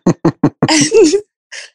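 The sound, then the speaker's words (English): A voice imitates coughing up water after being pulled out of the water: three quick, sharp coughs, then a longer gurgling, sputtering cough, and after a brief pause a short breathy rasp, all loud. “I'm like coughing up water.”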